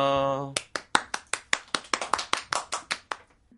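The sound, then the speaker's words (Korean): A short held tone gives way to steady, rhythmic clapping, about fifteen sharp claps in an even beat, an audience clapping in unison before a live music performance, ending with a faint low hum. “박수를 청해 듣겠습니다.”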